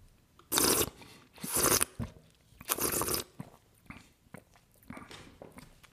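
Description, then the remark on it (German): During a wine tasting, someone slurps a small sip of wine while drawing air through the mouth: three loud, hissing, gurgling bursts in the first three seconds, then quieter wet mouth sounds. No one speaks. “Ich zwitscher so, um wie eben einleitend vorhin gesagt, dem Wein die Möglichkeit zu geben, die Aromen im Mund freizugeben.”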